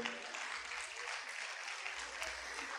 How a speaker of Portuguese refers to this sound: Você quer aplaudir? Aplauda o Senhor.